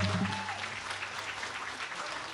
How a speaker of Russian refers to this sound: Ваши аплодисменты, пожалуйста, por favor.